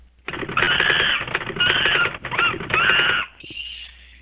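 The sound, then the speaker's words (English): A typing sound effect: rapid, loud typing clatter in four dense bursts with brief pauses between them, ending in a short ringing tone like a typewriter bell. No voices. “One more person to introduce on audio, and that is the typing monkey.”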